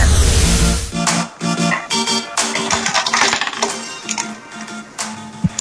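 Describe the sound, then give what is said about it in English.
A short, punchy opening billboard jingle for the Top 10 segment of The Morning Rush on Monster RX 93.1: bright metallic clinks and clattering hits over repeated tonal stabs, loud, with no voices. “And, you know, every time I hear our OBB, our top 10 OBB, yung da da da da”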